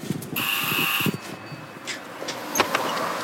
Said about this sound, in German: Kommt jetzt mit, wir klingeln jetzt mal. Ich stehe jetzt hier in Wusterwitz vor einer schönen Tür mit einem riesigen Kranz aus Blättern und ich klingel jetzt mal bei Alexa von Haydn.